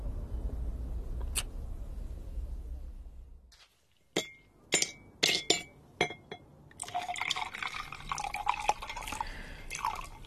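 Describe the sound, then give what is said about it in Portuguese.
Ice cubes clink sharply against a glass of whisky in a quick series of bright taps, then liquid pours and fizzes over them, clear with no talking. “Não há nada melhor do que um uísque com gelo depois de um dia de trabalho.”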